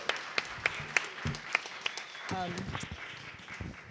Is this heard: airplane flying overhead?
no